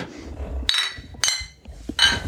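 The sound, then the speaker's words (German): Three bright clinks of beer glasses ring out in a toast, each a sharp strike with a short shimmering tail, spaced unevenly over a quiet background. “Wir haben es geschafft. Zum Wohle. Prost.”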